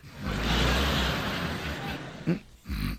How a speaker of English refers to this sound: you promised you wouldn't snore. And the minute you closed your eyes, you started.